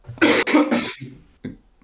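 A quick burst of three loud, harsh coughs in a row, followed by a couple of faint, short throat sounds trailing off. No one speaks.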